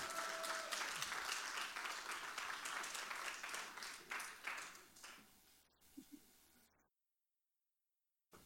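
An audience claps and applauds steadily for several seconds, a dense crackle of many hands that fades out, followed by a short silence.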